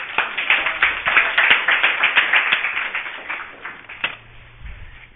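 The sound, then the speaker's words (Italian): A crowd breaks into applause for a speaker's contribution, many hands clapping in a dense, crackling patter that holds steady for several seconds, then thins out into a few scattered claps before fading. “Se invece, allora io volevo farvi un applauso perché il tuo intervento...”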